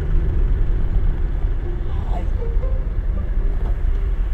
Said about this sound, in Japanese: 今ね車で走っているところですレンタカー屋さんのね車がねこの辺りからいっぱい走っていますね